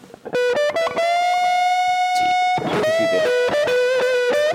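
A loud electric guitar through an OCD distortion pedal plays sustained, singing lead notes and bends, with repeats from a delay effect trailing behind each phrase, filling the whole short passage.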